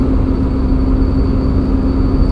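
A steady, thin high-pitched squeal rides over the loud, constant rumble of a German car driving, heard from inside the cabin with no one speaking.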